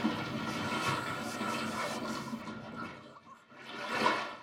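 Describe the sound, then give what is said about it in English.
Loud, continuous rushing water with a gurgling, hissing texture that eases briefly near the end before surging up again. No one speaks. “What's that sound? The water.”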